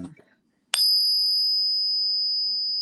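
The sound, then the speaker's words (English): A genuine proof Ike silver dollar coin gives a sharp metallic strike in a pocket ping tester, then rings out as a loud, piercing, sustained high tone that barely fades, following a brief murmur of voice. “the loudest, most obnoxious coin I've ever heard in the pocket pinger.”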